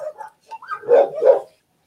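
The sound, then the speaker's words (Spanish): A dog barks twice in quick succession, two loud, full barks preceded by a few softer yelping or whining sounds, with nothing else around it. “Perdón, es que, escucho los ladridos y estoy esperando que en cualquier momento ladren mis perras.”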